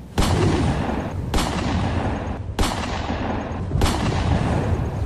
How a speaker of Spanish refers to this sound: Juan Jorge terminó disparando los diez tiros, quedando Hilario Crispín muerto.